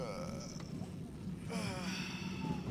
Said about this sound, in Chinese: 对面睡觉的男人终于动了。他抬起双臂向外一伸，长长的打了个哈欠。